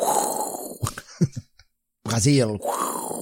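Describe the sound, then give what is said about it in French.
A voice imitates an airplane with a breathy, rushing whoosh, broken by a few short mouth bursts and a pause, then a spoken word and another airy whoosh trailing off. “C'est un avion à la bouche, hein, je suis désolé.”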